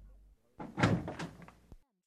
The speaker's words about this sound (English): Holmes got up and opened the door